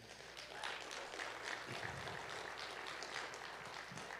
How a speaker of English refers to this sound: But before we kind of jump into the message, I just want to give you guys a shout out. Can we give a round of applause for what Be the Church Day was last weekend?